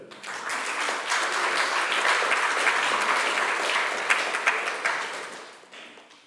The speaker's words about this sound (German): Ja, könnt ihr ja mal Beifall klatschen hier, ja?